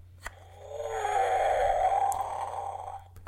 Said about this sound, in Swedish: Och det som är speciellt med lejonficklampan är att när man lyser med den så öppnar den munnen och låter så här.